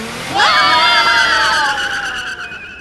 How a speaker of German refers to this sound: Motor starten! Handbremse lösen und Vorsicht, jetzt ist etwas holprig!